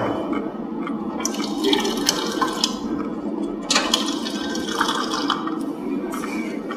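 Water runs steadily from the faucet of a combination toilet-sink that provides fresh water, a continuous rushing stream with brief splashy surges, no voices over it.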